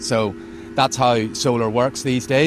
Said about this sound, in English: So you can hear the chiller units humming away in the background as well. They are one of the biggest energy users in the brewery because cooling liquid is pretty much where all of our power goes.